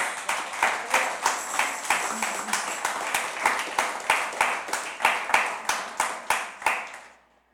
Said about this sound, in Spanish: Dele un aplauso a Dios.